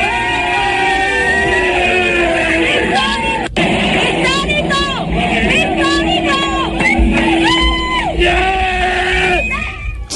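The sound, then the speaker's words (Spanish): A Colombian woman screams and yells wildly at the top of her lungs in a football stadium over a loud, roaring crowd, her shrieking voice rising and falling continuously for several seconds amid the dense cheering. “¿Es la que grita histórico de forma eh, incontrolada”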